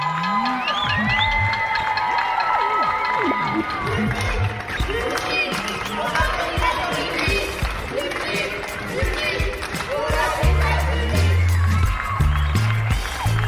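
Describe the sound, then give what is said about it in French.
Sustained applause and cheering from many people at their windows at 8 p.m., applauding French health-care workers, with whoops, shouts and scattered voices over continuous clapping; loud and dense throughout, with a low rumble in the final seconds. “C'est de la gratitude qu'on entend aux fenêtres,”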